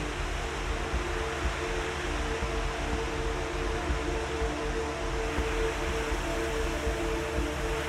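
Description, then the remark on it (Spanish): A steady, continuous wash of ocean surf breaking on a beach, with no distinct individual crashes, and a soft, low droning tone running underneath. No voices are present. “MEDITACION PARA SOLTAR EN LA PLAYA”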